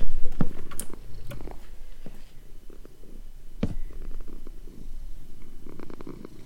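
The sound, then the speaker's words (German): A cat purrs, a steady low rumble that pulses gently throughout, with a few soft clicks and rustles over it and no one talking. “Ich höre es nur noch schnurren.”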